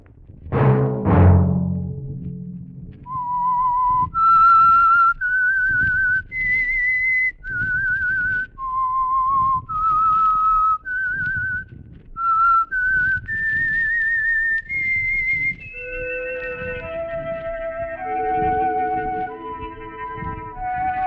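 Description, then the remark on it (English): A lone whistler carries a slow, eerie tune of clear sustained notes that rise step by step, after a brief low thump at the start, with a soft orchestral swell joining near the end. It is the whistled signal theme of the Signal Oil program The Whistler, sponsored by the Signal Oil Company. “Let that whistle be your signal for the Signal Oil program, The Whistler, each Sunday night at this same time.”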